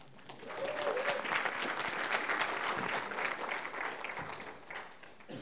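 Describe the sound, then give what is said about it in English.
An audience claps steadily together, a dense, sustained wash of applause at even loudness for several seconds, with a brief tonal cry or cheer near the start and no clear talking. “I don't just say that so that you'll clap, by the way.”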